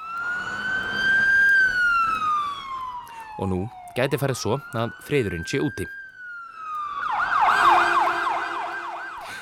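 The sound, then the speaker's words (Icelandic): Air raid warning sirens in southern Israel on a Monday evening, after a rocket was fired from the Gaza Strip, wail in long, slow rising and falling tones, then shift to a rapid warbling pattern. A man's voice speaks briefly over the sirens partway through. “Þessi sírinu hljóð heyrðust í söður hluta Ísrael á mánudaskvöld eftir að eldflög var skotið frá gasasvæðinu í fyrsta sinn síðan í janúar.”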